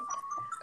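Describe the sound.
A mobile phone reminder alert to drink water sounds as a steady electronic tone held for about half a second, moderately quiet, before a voice abruptly begins speaking.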